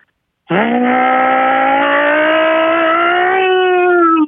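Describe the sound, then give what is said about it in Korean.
A voice imitates a race car going by: one sustained, buzzing engine-like whine held loud and steady for about four seconds, rising slightly in pitch before cutting off abruptly. “다음요 그 경주차 지나간 소리 예, 경주차 예예예 예, 예.”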